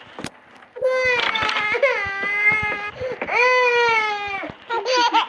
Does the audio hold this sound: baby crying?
yes